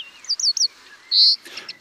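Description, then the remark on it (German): A European greenfinch twitters in short bright bursts, a quick run of chirps followed by a longer buzzing note, clear against a quiet background. “Ja, und mit dem schönen Gezwitscher des Grünfinkens verabschieden wir uns aus dieser ersten Folge 2024.”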